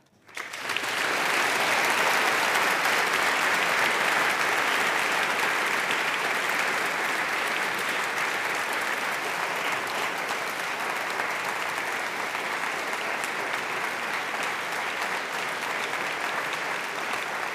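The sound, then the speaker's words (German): Sustained applause from an audience seated in a hall at a festival event: a dense wash of many hands clapping that swells within the first second and stays loud and steady for the whole stretch, with no speech over it. “Sparen Sie sich noch ein bisschen Beifall auf”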